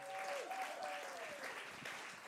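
Steady audience applause, a dense wash of many hands clapping at an even level throughout, with a faint tonal whistle or feedback-like tone briefly audible underneath.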